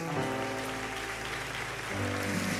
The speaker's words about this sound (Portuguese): de palmas para Jesus, muito obrigado.